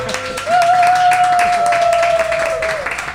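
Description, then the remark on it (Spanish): Steady applause from a group, celebrating reaching 30 members, dense overlapping claps throughout, with a sustained whistle-like tone that slides up, holds, then drops near the end. “¿Y habéis notado, por favor, al otro lado del auricular, la calidad de estos aplausos, por favor?”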